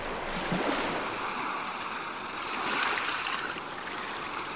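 Ocean waves wash and break continuously in a steady, hissing roar, with a couple of gentle swells in loudness as the surf rolls in. No voices are heard.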